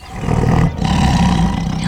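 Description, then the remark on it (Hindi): A tigress near her kill in the jungle roars loudly after a gunshot fired at her misses, a deep, rumbling growl in two sustained bursts separated by a brief catch of breath, echoing through the jungle, with no voices present. “निशाना चूका और अब शेरनी के दहाड़ने की बारी थी अपने शिकार के आसपास वो किसी को बर्दाश्त नहीं करते उसकी दहाड़ से जंगल गूंज उठा”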